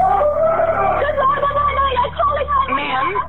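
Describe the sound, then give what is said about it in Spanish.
A man, the caller's father, screams and wails over a muffled, tinny emergency call line, his raised voice straining continuously for a few seconds with other distressed voices blending behind. “Lloraba, gritaba y pedía ayuda y mientras aún seguían ambas en línea, se escucharon gritos.”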